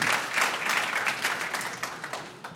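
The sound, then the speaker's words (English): A crowd at a church fellowship claps hands together in praise to God in a dense, steady burst of applause, many overlapping claps forming a continuous bright patter at moderate loudness, easing slightly toward the end. “And, and if you believe that, give God some praise by clapping your hands if you believe that this is your season for a beautiful breakthrough.”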